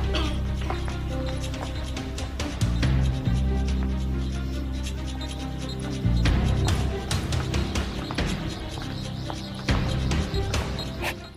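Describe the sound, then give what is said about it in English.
Heavy drum beats thump through a loud, dense soundtrack, sharp repeated hits landing over a sustained low musical bed that runs steadily from start to finish. “But I love the sound of that drum.”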